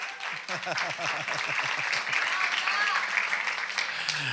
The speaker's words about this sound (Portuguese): aplauso, gente. Aê!